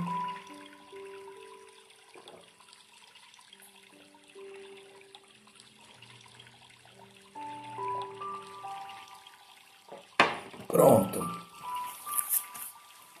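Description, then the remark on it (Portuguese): After a stretch of soft sustained tones and a brief spoken word, water is poured to be drunk, with a splashing gush that runs for a few seconds, then trickles off near the end. “Vamos beber da água.”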